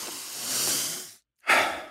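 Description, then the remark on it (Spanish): A long, forceful breath drawn in with a broad airy rush, a brief silent pause, then a sharp, strong exhale, with no talking; a demonstration of a deep breathing technique. “Pues como les decía, es una técnica de respiración, es respirar profundo”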